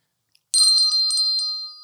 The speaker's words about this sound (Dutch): Daarom hebben wij een, eh, een, een belletje.